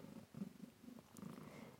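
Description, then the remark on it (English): A cat purring steadily in the background, a low continuous rumble pulsing in soft rhythmic waves with no talking over it. “Oh, if you hear the cat, uh, something strange in the background, it's just the cat who wants to”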